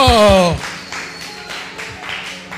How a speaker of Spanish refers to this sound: Ok, un aplauso para todito.